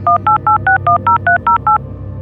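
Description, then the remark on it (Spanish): A telephone number being dialed again on a phone: about eleven short keypad tones beep in quick, even succession, clear, over a faint low hum, then stop. “Se sentó nuevamente a mi lado y sin decir nada volvió a marcar un número en el teléfono.”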